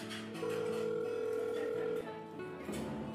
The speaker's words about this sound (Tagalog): Eto nga oh, nagiring na yung phone niya.